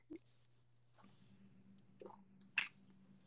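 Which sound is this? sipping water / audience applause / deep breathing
sipping water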